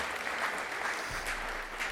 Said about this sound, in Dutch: Zullen we een applaus geven?